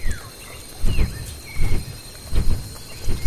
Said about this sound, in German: Es ist das Rauschen von großen Flügeln, unverwechselbar, lauter und länger anhaltend als bei anderen Vögeln.